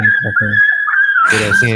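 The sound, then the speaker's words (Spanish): A thin, high-pitched whimper wavers steadily through the whole stretch, sounding like a distressed dog, while short bursts of voice break in over it. “están matando al perro ahí, güey.”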